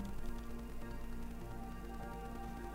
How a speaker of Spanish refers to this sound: Estuviste escribiendo, se escuchaba el lápiz.